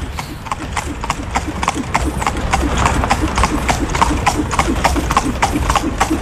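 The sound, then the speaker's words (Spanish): Steady clip-clop of the hooves of a horse-drawn victoria carriage in Viña, recorded while riding on top of it in motion: sharp rhythmic knocks repeating quickly over a constant rolling rumble, with faint voices murmuring underneath. “Esto en Viña, ¿no? sí, las victorias de Viña.”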